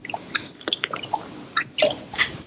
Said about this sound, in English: Well, that's a lot of water there, Flex.